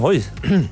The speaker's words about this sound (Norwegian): Eh, det var bare halsen min som eh, prøvde å si fra om at her må det kremtes!